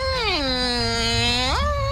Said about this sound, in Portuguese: Pô, essa porta de filme de terror, velho.